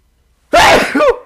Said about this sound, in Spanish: Ay, fue un estornudo muy largo.